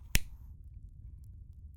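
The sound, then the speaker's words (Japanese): A lighter is flicked once to light a cigarette held in the left hand: a single sharp click with a short hissy tail that fades within half a second, leaving only a low steady background rumble. “タバコを左手に持ったまま火をつける。”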